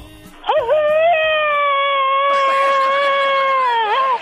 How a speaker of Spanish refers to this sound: este es el grito alterado del viejón.